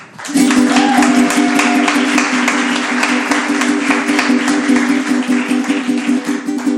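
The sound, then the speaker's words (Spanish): A crowd applauds loudly and steadily for several seconds with dense clapping and a sustained low droning tone running underneath the whole time. The audience is welcoming performers at an evening music concert. “Un aplauso para”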